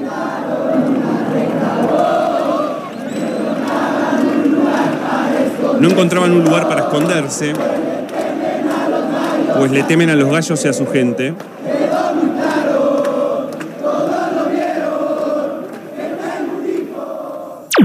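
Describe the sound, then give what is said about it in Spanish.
A large crowd of football supporters of the red-and-black Atlas club chants in unison, many voices singing loud rhythmic lines continuously with a roaring, steady energy and brief swells of shouting. “con la misma connotación del aguante en las canciones, ya no solamente del aliento del equipo, sino del aguante, de la pelea”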